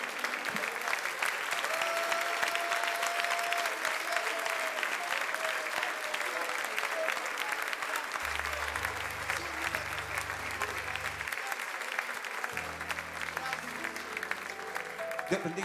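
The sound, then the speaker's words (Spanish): An audience applauds steadily for the full stretch, a dense, even wash of clapping that never lets up, offered as a round of applause to the Lord, with low sustained organ-like tones entering partway through beneath it. “Un fuerte aplauso a nuestro Señor.”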